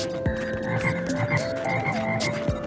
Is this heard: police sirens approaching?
no